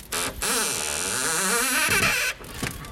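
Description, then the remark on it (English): A power drill whirs for about two seconds, its motor whine rising and falling in pitch as it drives in screws while boards are put up to cover the shattered windows of a school, then cuts off, with a brief second burst at the end. “That's the sound of um, drilling as they put the boards in to uh, cover up shutter windows of a school.”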